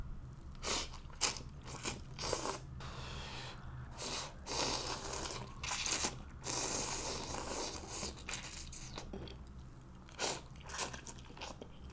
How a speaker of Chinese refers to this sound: 好，那我其实呢是深夜在录节目哈，因为压力呢已经吃起了夜宵，来听一口吧。